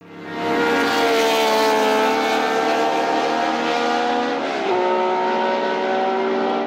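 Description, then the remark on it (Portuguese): A loud Ferrari V12 Colombo racing engine screams at sustained high revs with a rich, buzzing whine; near the end the pitch dips briefly, like a gear change, then holds steady again. No voices. “Eu estou falando dos lendários motores V12 Colombo.”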